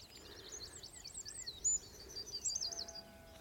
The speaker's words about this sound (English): Yeah, you can hear yellowhammer singing here as well. yellowhammer singing in the tree beside me.